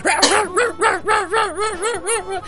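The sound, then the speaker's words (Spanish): A dog barks in a quick, steady series of about eight sharp, tonal yaps, fairly loud, with no one talking over them. “Puta el perro, bien entonces se pone a ladrar, loco, y ladre, ladre, ladre.”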